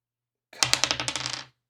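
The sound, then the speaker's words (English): Dice clatter across a hard tabletop in a quick burst of about ten bright clicks, tumbling faster and fading as they settle, fairly loud with no voices; the roll comes up a six. “Oh, I got a six.”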